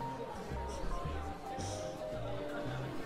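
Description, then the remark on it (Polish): A steady murmur of many overlapping voices in a diner, with no single speaker standing out and a constant, moderately loud background hum throughout. “do tej pory słychać było gwar.”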